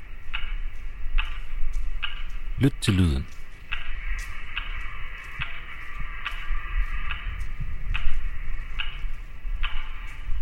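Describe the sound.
A musicians' metronome ticks at a steady, moderate pace, broadcast from large loudspeakers on street corners across Leningrad in 1942. Each click is sharp and evenly spaced over a low background hum, with a brief spoken phrase near the start.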